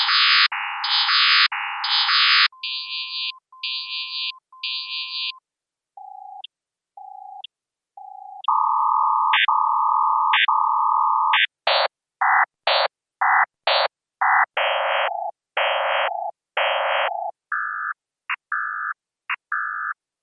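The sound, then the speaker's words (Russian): An image rendered as sound by vOICe: a sequence of synthetic electronic tones, steady blocks and short beeps jumping between pitches in an irregular rhythm, with no voices. “vOICe, или зрение на слух”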